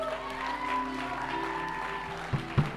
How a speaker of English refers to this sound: Come on, let's give her a great clap, eh?